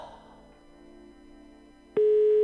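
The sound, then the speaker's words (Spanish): A landline phone call tone cuts in abruptly near the end, a loud steady electronic beep that goes unanswered, following a couple of seconds of low, faint humming background. “Esto tiene que ver también un poquito con la no utilización. ¿Del teléfono fijo?”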